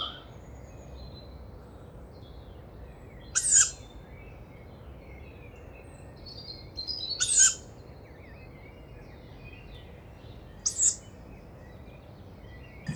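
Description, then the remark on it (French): A young tawny owl, already adult-sized and flying well, gives three harsh, hissing begging calls unlike the adults' calls, spaced a few seconds apart over a quiet night background, each a short rasping wheeze of moderate loudness. “Mais alors le, cri n'a rien à voir avec les adultes. Une espèce de chuintement.”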